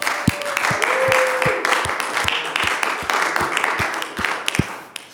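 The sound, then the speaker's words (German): Applause from a church audience for their pastor, a dense wash of many hands clapping steadily for several seconds, with a few sharper individual claps standing out before it tapers off at the end. “Wir wollen ihm einfach mal einen großen Applaus geben.”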